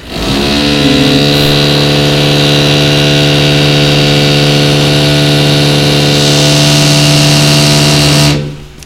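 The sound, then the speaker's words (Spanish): A loud, steady mechanical drone from repair work on premises next door, like a motor running at a constant pitch, lasting about eight seconds before cutting off abruptly. No one speaks over it. “Este, perdón por el ruido, están reparando aquí al lado de, la estación un local y creo que vamos a tener bastante, bastante.”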